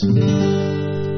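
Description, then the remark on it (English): A single strum of a 'country G' chord on guitar, with the ring finger on the third fret of the B string and the pinky on the third fret of the high E string. It is fairly loud, with the notes ringing out and slowly fading. No one speaks. “So the whole G sounds like this.”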